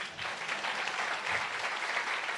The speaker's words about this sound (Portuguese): Pode aplaudir